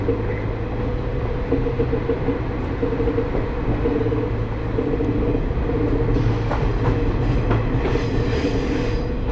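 An Ai Yoshinogawa Torokko scenic trolley train on the Tokushima Line in Japan runs steadily along the rails from Awa-Ikeda to Sadamitsu, a continuous low rumble with droning engine tones, rhythmic wheel clatter and occasional metallic squeals, loud throughout with no talking.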